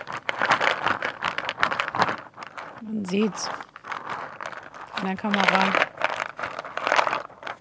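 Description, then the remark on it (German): Small nougat candy pieces rattle and crinkle inside a box held shut, a dense, steady stream of clicks and crackles, with a couple of short spoken remarks over the shaking. “das sind mhm. ähm, Nougat-Bits.”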